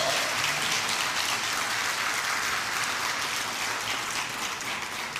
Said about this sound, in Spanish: Denle palma fuerte a ese Dios poderoso.